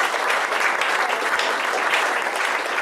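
Steady audience applause, a dense wash of many hands clapping at a fairly even loudness throughout, with no voices standing out.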